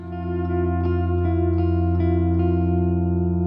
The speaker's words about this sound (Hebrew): עכשיו הדיאלוג יהיה בין גיטרה חשמלית וחצוצרה.